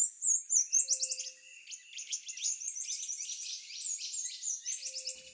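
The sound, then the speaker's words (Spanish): Several Amazon rainforest birds, such as the Amazonian antbird, mouse-colored antshrike, yellow-browed antbird and reddish hermit, call at once in a dense, overlapping chorus of high, rapid chirps and trills, with a brief low tone now and then; no one speaks. “Hormiguero ribereño, hormiguero amazónico, el batará ratón, el hormiguero ceji amarillo, y el ermitaño rojizo.”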